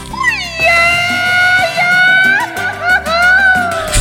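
A Mexican singer's grito: a long, loud, high-pitched cry that wavers and swoops through several sustained yelps, with steady low accompaniment beneath it.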